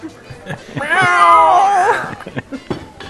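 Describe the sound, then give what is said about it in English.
A single long, wailing cat meow rises and falls for about a second, loud, with scattered faint clicks and murmurs before and after it. “Where is the cat in all of this? Oh crap! The cat's in the blender too.”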